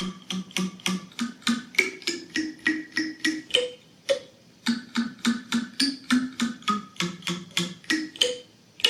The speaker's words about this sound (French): Eh ben, c'est un clavier construit à partir de bâtonnets d'esquimaux. des bâtonnets d'esquimaux en bois, hein, fixés sur une planchette, en bois aussi, et réglés pour vibrer sur les fréquences des notes de la gamme quand on les pince